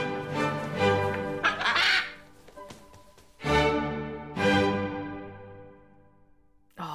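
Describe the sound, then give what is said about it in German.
Loud, harsh squawks from a parrot, several drawn-out cries in a row with brief pauses between them, clear with no voices alongside. “so ein Papagei.”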